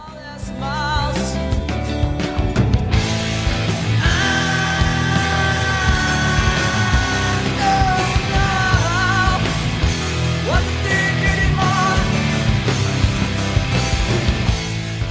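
A 1990s grunge rock song plays loud and steady for the whole stretch, with dense distorted guitars, driving drums and a strained, wavering lead vocal riding on top.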